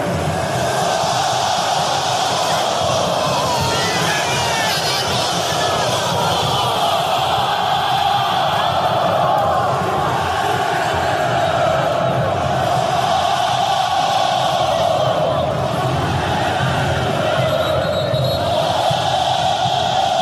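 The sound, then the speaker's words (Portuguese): A huge football stadium crowd of Corinthians supporters roars continuously after their team concedes a goal with the game at 0–0, cheering to lift the team: a dense wall of chanting and shouting voices that stays loud and sustained throughout, with rhythmic swells in the singing. “O jogo tava 0 a 0 o Corinthians leva esse gol e a torcida explode de um jeito para puxar o time para cima que é muito bonito.”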